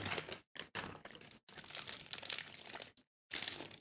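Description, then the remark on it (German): Loud crinkling of an empty crunchy snack bar packet in several bursts separated by brief silences, with crisp, rustling crackles and no talking. “Die Packung ist jetzt eigentlich leer mit den Knusperriegeln.”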